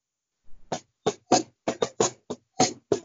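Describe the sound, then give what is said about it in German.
A second-hand cajon, bought on eBay Kleinanzeigen, is played by a beginner with about nine sharp hand strikes in a loose, uneven rhythm, mixing deep bass thumps with brighter slaps, fairly loud and with no voices. “Ah, eine Cajon gekauft, ja cool.”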